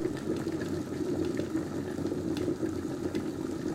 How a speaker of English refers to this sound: There's the kettle boiling.